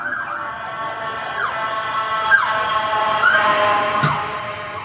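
An ambulance siren wails in quick, repeating rising-and-falling cycles about once a second, fairly loud and steady throughout, with no voices over it.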